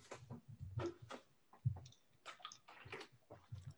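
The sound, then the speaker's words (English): Someone sips water: a quick run of wet slurps, gulps and small mouth clicks in an irregular rhythm, fairly quiet, with no talking. “Excuse me, I had to get a sip of water.”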